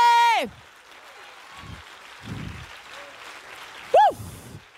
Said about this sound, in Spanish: La, dale el aplauso fuerte.